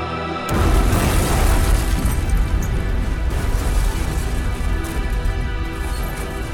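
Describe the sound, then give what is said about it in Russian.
A car crash within an ambient music track erupts suddenly and loudly, then a dense, roaring wash of crunching, rumbling noise carries on without letting up. No voices are heard. “мы слышим звуки дождя и грозы, а из нарастающего эмбиента в духе … доносятся шумы автокатастрофы и угасающего пульса.”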